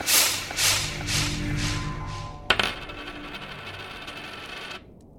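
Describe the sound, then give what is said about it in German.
A sixpence coin is dropped into a purse: a few quick metallic jingles, then one sharp clink followed by a bright ringing tone that fades after a couple of seconds. Clear, with no talking. “Ich stecke mein Geld in die Geldbörse.”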